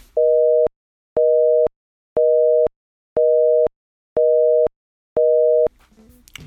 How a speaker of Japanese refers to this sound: アメリカにおけるビジートーンの電話中だった時のトーン音があるんですけどもそれをまず聞いてみてくださいこちらです